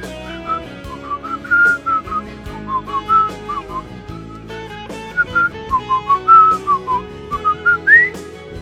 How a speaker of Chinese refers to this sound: 口哨我也会哦。